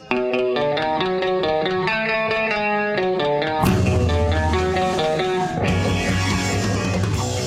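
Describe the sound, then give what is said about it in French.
An AI-generated song whose singer's voice is converted to resemble John of a band: a loud, steady melody over sustained chords, swelling into a fuller, heavier band sound about halfway through. “Encore une chanson que les … n'ont jamais chantée ensemble.”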